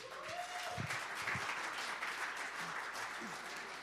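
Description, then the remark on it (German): An audience at the Connect Church breaks into steady applause for two new church members, a dense wash of many hands clapping at an even level for several seconds, with a few faint voices mixed underneath. “Gebt den beiden mal einen Beifall.”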